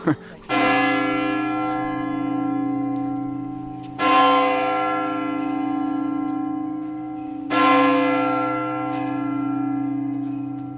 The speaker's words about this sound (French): mais c'est pas fini faut le rappeler, si jamais ceux qui n'avaient pas entendu. Donc, voilà. Une autre cloche qui rappelle que c'est bien 3 heures.